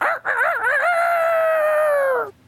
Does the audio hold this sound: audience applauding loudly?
no